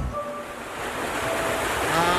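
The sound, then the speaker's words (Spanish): A steady, dense hiss of heavy rain mixed with gusting wind, rising slightly toward the end, with a low rumble underneath and no voices. “Sí, sí, amiga, llueve muchísimo, con viento por acá.”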